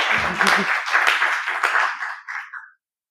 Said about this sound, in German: Das also ist ein Applaus wert.